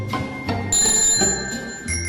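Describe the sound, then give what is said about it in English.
A bicycle bell rings out several times in quick succession, bright and metallic with a lingering ring, over a low rumbling background. “I've been forgetting to use my bell, though.”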